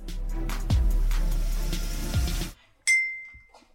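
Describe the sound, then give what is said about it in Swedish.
A single bright clink of glasses rings out and lingers with a clear, decaying tone, following a stretch of low rumbling, shuffling noise that suddenly cuts to near silence. “Skål.”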